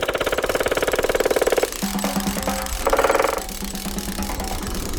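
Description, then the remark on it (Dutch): A woodpecker drums on a tree in a rapid, machine-like roll for over a second, then a shorter burst follows; the rattling taps are loud, with no voices. “Het roffelen van de spechten.”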